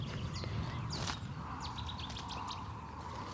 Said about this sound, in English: There you go. Hopefully, you heard that Cetti's then.